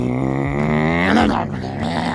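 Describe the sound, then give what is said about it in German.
A person imitates a motorcycle engine with a steady, buzzing vocal rumble that shifts pitch briefly midway, fairly loud, with no other sounds around it. “nee, das war Motorrad, warte.”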